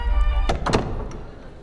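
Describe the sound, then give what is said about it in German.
A small door on the left opens as a coffin moves around a podium, with two dull thunks over a low mechanical hum. The knocks are moderately loud, followed by a brief soft rattle as the sound fades out. “Links ging eine kleine Tür auf.”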